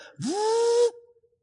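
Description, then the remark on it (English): A voice imitates a blender whirring: one short rising tone that levels into a steady, breathy whine, held for under a second before cutting off abruptly. “But a lot of times when you, when there's questions here and questions there, put it all in the blender and go,”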